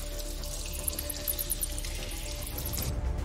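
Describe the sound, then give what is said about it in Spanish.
Several people wading knee-deep through sewer water in a sewer entered from a building's basement, a steady churning slosh with small splashes flickering on top, continuous, with no voices. “Caminan con el agua de la alcantarilla hasta las rodillas.”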